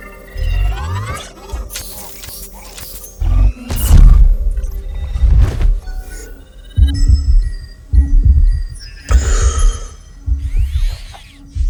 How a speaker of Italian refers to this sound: il battito cardiaco e la respirazione rallentano, il metabolismo si riduce e la temperatura corporea si abbassa.